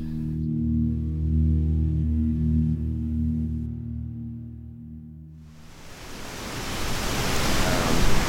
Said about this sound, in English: Okay, I'm just going to get some sound of the wind here.